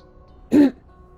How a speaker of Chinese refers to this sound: 就是像一个中年男人清嗓子的声音，然后我猛的一下就惊醒了。